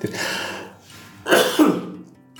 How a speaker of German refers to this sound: Entschuldigung wegen dem Husten, aber ich habe